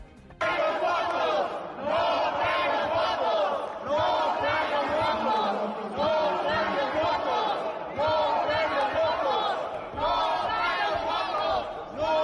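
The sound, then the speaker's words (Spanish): Opposition senators shout a rhythmic chant in unison, "No traen los votos", repeating in steady bursts that fill the Senate chamber, loud and continuous throughout. “No traen los votos, grita la oposición ante el planteamiento sacado pues, de la chistera de última hora Ricardo Monreal”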